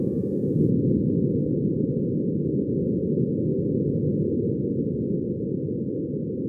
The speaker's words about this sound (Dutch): Laten we eerst een echt geluid van Mars gaan beluisteren. Dit is het geluid van de wind door de Marsrover zelf, opgenomen op Mars.